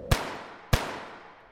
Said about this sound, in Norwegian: Paret går nedover Sveaveggen, og 11 minutter senere, klokken 23.21, avfyres to skudd av en skytter.